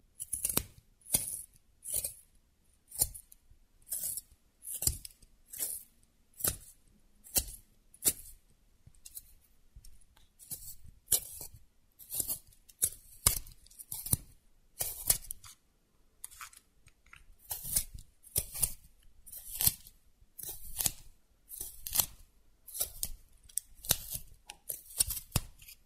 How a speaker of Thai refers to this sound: เสียงปริศนาในวันนี้ก็คือเสียงของกบเหลาดินสอค่ะ แถมไม่ใช่เป็นกบเครื่องด้วยนะคะ แต่เป็นกบเหลาดินสอชิ้นเล็ก ๆอันเล็กๆ